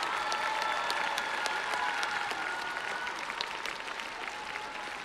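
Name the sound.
audience applause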